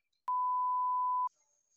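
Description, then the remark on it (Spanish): A single steady electronic beep, a pure mid-pitched tone lasting about a second, loud and clear with nothing else around it, followed by a faint high hum. “Un, un pitido, ¿no?”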